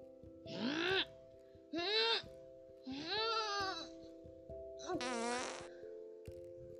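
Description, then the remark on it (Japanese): Four loud, squeaky fart sounds in quick succession, each a brassy burst with a wavering pitch, over a faint steady background tone. They come from Koyama-kun, a little mountain, who strained too hard. “小山くんは力を入れすぎで屁をこいてしまいました。”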